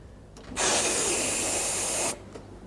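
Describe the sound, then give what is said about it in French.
A voice imitates a trolleybus front door opening with one sustained, hissing burst of air lasting about a second and a half, loud, cutting off abruptly. “Les portes, c'est comme ça, hein, la porte avant, attendez.”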